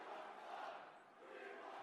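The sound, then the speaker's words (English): A wrestling crowd chants "We want blood" together, a dense, loud wall of many voices that swells, dips briefly midway, then surges again, with no single speaker standing out. “What Crowd's chanting for blood. We want blood.”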